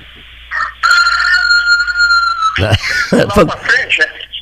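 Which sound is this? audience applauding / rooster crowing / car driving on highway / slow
rooster crowing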